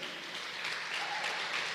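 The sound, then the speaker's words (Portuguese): An audience claps steadily in praise of the Lord, a dense wash of overlapping handclaps at a fairly even, moderate loudness with no voices over it. “Vamos aplaudir o Senhor bem forte porque ele merece.”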